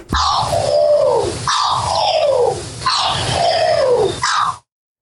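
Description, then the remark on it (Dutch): Three loud, harsh descending contact calls from a corvid, each lasting over a second with a raspy, nasal quality, followed by a short fourth call before silence; no talking. “De, lokroep van een soort kraaiachtige bijvoorbeeld, die klinkt dan als volgt.”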